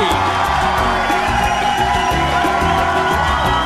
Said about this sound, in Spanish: Este es el último viernes de este primer mes del 2022 ustedes piensan que eso merece un aplauso. Ejo. Ellos piensan que sí.